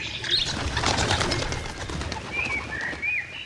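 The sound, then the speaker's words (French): A large flock of hundreds of birds bursts into flight, scattering from a large oak tree, a dense rush of flapping wings filling the air, with a few faint chirps and calls over the steady whirring throughout. “Soudain, les oiseaux se dispersent, laissent apparaître l'arbre qu'ils recouvraient.”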